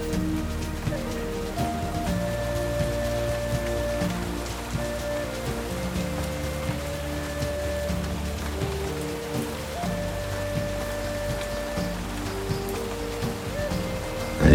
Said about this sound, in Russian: Льется дождь, проливая на тебя благодать и безмятежность.